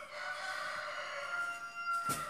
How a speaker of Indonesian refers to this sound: itu salah satu backsoundnya ya ayam